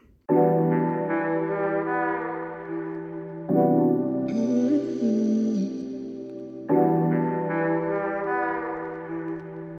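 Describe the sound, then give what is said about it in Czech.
A short instrumental jingle of loud, sustained synth chords plays on its own, its phrase repeating roughly every three seconds with a brighter shimmer in the middle section and no voices. “Takže sledujte mě a takže doufám, že vás bude tento podcast bavit a nyní si pustíme znělku.”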